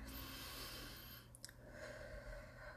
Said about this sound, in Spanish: Ah, antes de que empecemos, respira. Vamos a, hacerlo esto muy meditativo, muy bonito, para que te llegue más al corazón. Así que da una respiración profunda.